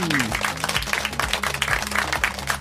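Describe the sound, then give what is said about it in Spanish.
A steady burst of applause, many hands clapping densely and continuously for a few seconds, with a faint voice murmuring underneath. “Un aplauso para mí”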